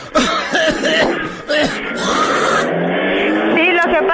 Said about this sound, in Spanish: Mire la, la tos que traigo.